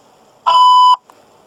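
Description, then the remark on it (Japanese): A single steady electronic beep from an answering machine, loud and clear, lasting about half a second, the tone played before recording a caller's message, with a faint hum of background noise around it. “発信音の後に、お名前とご用件をお話しください。”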